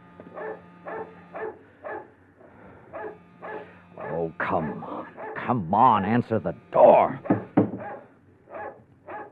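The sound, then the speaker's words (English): A dog named Queenie barks repeatedly in loud bursts at a small cottage near the beach, following a stretch of regular knocking or ringing of the front door bell, while a person speaks impatiently. “Oh, shut up, Queenie. Be quiet, will you?”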